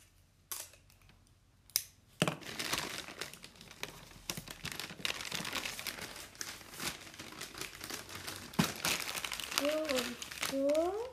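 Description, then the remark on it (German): Continuous crinkling and rustling of paper being folded and pressed while wrapping something, with sharp crackly bursts throughout and a few brief voiced sounds near the end. “Warte, dann hier das so umklappen.”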